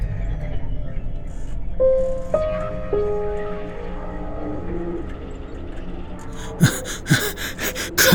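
A man pants and gasps with strain while leaning against a heavy machine resembling a gigantic centrifuge in a secret army bunker in Mühren, canton of Bern, Switzerland; a few sharp, effortful breaths near the end, over a steady low mechanical rumble with faint whining tones earlier.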